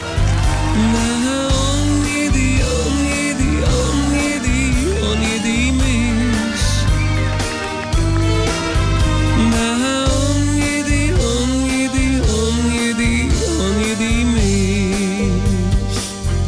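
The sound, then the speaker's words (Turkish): A pop song plays loud and steady throughout, with a male voice singing a wavering melody over a driving bass line and full band backing. “17 olanlar varsa bu şarkı armağan.”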